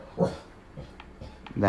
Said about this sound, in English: is my dog. I apologize. He doesn't ever stop.